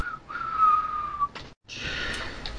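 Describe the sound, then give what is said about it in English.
A person whistles one steady, fairly high note for about a second, then breaks off into breathy, airy blowing with no clear tone. “No, you'll so, never whistle with... tune in this town again.”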